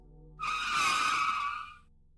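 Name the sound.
car braking hard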